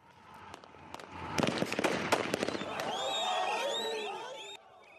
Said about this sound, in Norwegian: Skuddene og fjernsynsbildene rystet en hel verden. I morgen er det nøyaktig fire måneder siden politiet i Sør-Afrika skjøt og drepte 34 arbeidere som demonstrerte for høyere lønn og bedre vilkår utenfor gruveselskapet Lonmins Platina-smelteverk